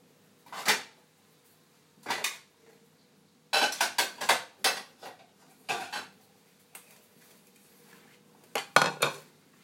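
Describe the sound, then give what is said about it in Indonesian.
Plates and cutlery clatter on a hard counter in scattered bursts as someone tidies up and takes two plates for plating food, a few single clinks followed by a busier cluster of rattling knocks, fairly loud with quiet gaps between. “aku mau plating ini udah hampir selesai beresin dulu ambil dua piring”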